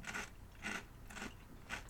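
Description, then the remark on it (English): Crunching as a crisp snack is chewed, four bright crunches falling in a steady rhythm about half a second apart, fairly quiet, with no talking. “But that might also be just because it's crunchy, right?”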